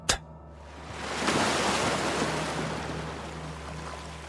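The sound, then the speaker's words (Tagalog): Ocean waves swell into a broad, rushing wash that peaks after a moment and slowly recedes, with a low steady hum underneath and no voices. “Kinakausap niya ang dagat.”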